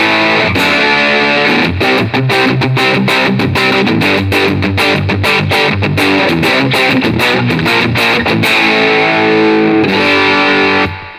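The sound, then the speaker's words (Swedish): A heavily distorted, high-gain electric guitar plays alone, with chugging palm-muted riffs and sharp rhythmic stops before a sustained, ringing chord at the end. Loud and saturated throughout, with no talking. “När du spelar med en handbackgitarr så kan du få eh, ganska schyssta high gain sound. Men här är ett high gain ljud då.”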